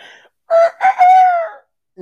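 A rooster crows once, loud, with two short rising bursts followed by a long, strained note that trails off after about a second. No other sounds accompany it.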